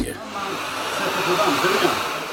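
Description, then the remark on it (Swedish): A steady, loud motor whine with a broad airy roar, like a vacuum cleaner running, holding constant without pauses or voices for the whole stretch. “Har du slutat dammsuga för att hjälpa Sverige spara el?”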